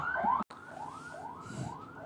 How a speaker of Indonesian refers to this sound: ya tadi ada sirene ambulan itu kayaknya apa ya uh, ngambil korban covid ya atau mindai pasien covid ke rumah sakit yang lain gitu sih